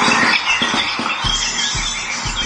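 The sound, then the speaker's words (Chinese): A recording of another mother bird's feeding call, played to get an injured chick to eat: a loud, continuous stream of shrill, squawking chirps, with repeated low thumps underneath at an irregular beat. No one speaks. “于是呢，这名网友就想了一个机智的办法，就是录下了别的鸟妈妈喂食的叫声，让小鸟顺利开口进食。”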